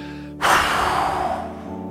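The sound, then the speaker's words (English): After a brief quiet pause, a deep belly breath that was held for a second is blown out hard and fast in one long, forceful breath, loud at first and tapering off over about a second, over a faint steady background hum. “Now, blow out hard and fast like a powerful wind.”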